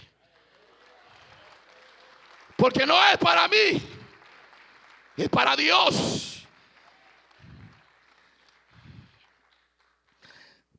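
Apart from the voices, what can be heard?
audience applauding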